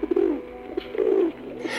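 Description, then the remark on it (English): A city pigeon (street pigeon) coos, a few low, throaty rolling calls in quick succession, heard on its own with faint background noise. “City pigeons, street pigeons, are abundant in towns and cities across the world.”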